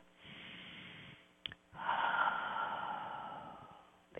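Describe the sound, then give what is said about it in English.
A slow, deep breath drawn in, a brief pause with a small click, then a longer, louder airy exhale, with no talking. “Easiest way to center is to take a deep breath”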